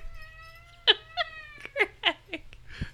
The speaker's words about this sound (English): Oh, she's running. Oh, she's meowing. Ellie, hey Ellie, are you hungry?